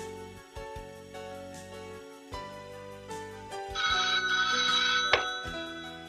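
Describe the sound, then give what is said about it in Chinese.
A bedside telephone bell rings loudly in repeated bursts right after the receiver is put back, swelling into a bright, shrill sustained jangle toward the end, with no voices. “谁知才搁上去，又是铃声大作。”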